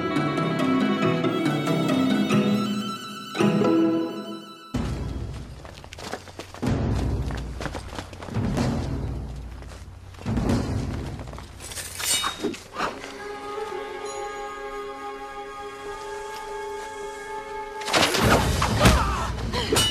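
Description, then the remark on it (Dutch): A chaotic battle scene from the 2007 film The Last Legion, about the last years of the Western Roman Empire: repeated heavy thuds, metallic clattering and rapid hoofbeats crash in loud bursts over a swelling orchestral score, with no one speaking. “gekletter, hoefgetrappel. We hoorden hier een scène uit de film The Last Legion uit 2007 over de laatste jaren van het West-Romeinse Rijk.”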